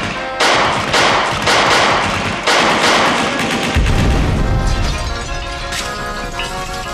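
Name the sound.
gunshots fired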